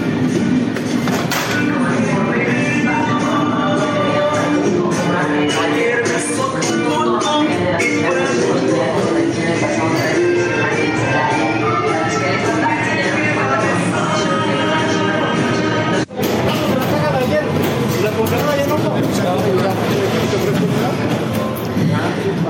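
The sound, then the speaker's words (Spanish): Street and market ambience in Mexico City on 22 December: a loud, continuous wash of overlapping crowd chatter and bustle, with low rumbling and occasional thumps underneath, briefly dipping for a moment before resuming. “Así suenan las calles y los mercados en este 22 de diciembre.”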